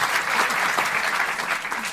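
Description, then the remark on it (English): A steady round of audience applause, dense and continuous clapping from many hands with no pauses, holding an even loudness throughout before easing slightly at the end. “Surely that is worth a round of applause.”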